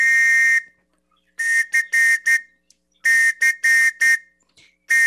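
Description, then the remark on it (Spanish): Loud, shrill whistle blasts calling a scout pack to formation: one long blast, then two quick rhythmic bursts of short and longer toots separated by brief pauses, and a final blast starting at the end. “voy a hacer el llamado a la formación con el silbatazo para que después nos puedas dirigir la oración.”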